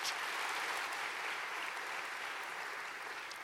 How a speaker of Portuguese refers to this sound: Você crê nisso? Você crê nisso? Dê um aplauso forte para o Senhor, mas bem forte.